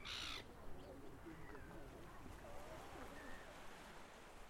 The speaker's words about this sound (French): Réduire les maisons côtières à des silhouettes noires et plates. Ombre chinoise transpercée des cris stridents des mouettes.